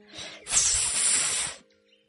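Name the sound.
snake hissing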